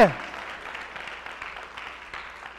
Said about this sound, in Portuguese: Teve uma pessoa que aplaudiu. Se você quiser aplaudir também.